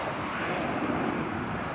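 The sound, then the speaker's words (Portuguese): An airplane roars overhead with a steady, broad engine rumble that holds at an even, fairly loud level throughout, with no voices over it. “É um problema no avião passando quando eu tava falando.”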